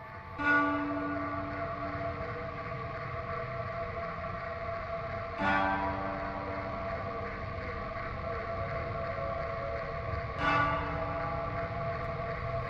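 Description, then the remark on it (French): A spacey ambient drone of slowed-down recordings of plants: layered sustained tones hum steadily, with a fresh swell arriving about every five seconds, three in all, moderately loud and with no voices. “Donc on a ralenti les enregistrements. C'est très planant. Ça fait, au final, ça fait une sorte d'ambiance.”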